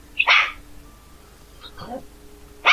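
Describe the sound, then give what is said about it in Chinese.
A dog barks in short, sharp bursts: one loud bark at the start, a softer, rougher yelp in the middle, and another loud bark at the end, with quiet gaps between. “你把那个狗先解决一下子”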